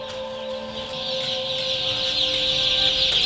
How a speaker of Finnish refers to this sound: No yksi semmoinen, mikä ehkä niin suurimman vaikutuksen teki, teki oli, kun me käytiin, me käytiin siis Kanalassa, tämmöisessä broilerikanalassa.